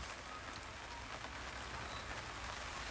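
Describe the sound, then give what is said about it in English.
Steady rain falls in Melbourne, a dense, continuous hiss of drops pattering on leaves and ground with no voices, the sound even and unbroken throughout. “See, I want this to feel like the garden getting rained on.”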